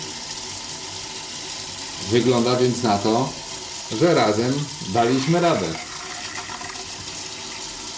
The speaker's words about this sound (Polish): Trochę słyszycie odgłosy przez ileś godzin woda nie płynęła, więc jakieś tam jeszcze zawirowania w rurach, ale płynie, sprawdzam sobie Zawsze warto oczywiście puścić trochę wody, żeby posprawdzać szczelność instalacji.